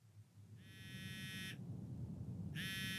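A mobile phone alarm rings in repeated electronic beeps, each about a second long with a short pause between, sounding nearby over a low, steady background hum. No one speaks.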